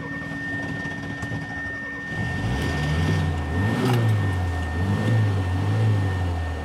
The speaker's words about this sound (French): Quattro marce. 4 vitesses. Et le son du moteur euh, va très bien avec euh, ce qu'on est en train d'écouter.